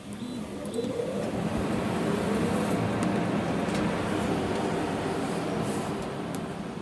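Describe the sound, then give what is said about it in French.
Machines hum and whir steadily, a continuous mechanical drone with faint rising motor whines, evenly loud throughout, no voices: 3D printers running and fabricating in a fablab. “Et il y a un petit bruit assez sort qui tourne, c'est le bruit des machines qui fabriquent.”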